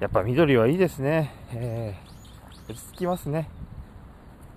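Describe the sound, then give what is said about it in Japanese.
A man talks calmly outdoors at a highway parking area surrounded by greenery, while faint, high bird chirps flicker in the background, a few quick tweets slipping between his phrases against a soft open-air hush. “なんかね鳥の声も聞こえたりしてね”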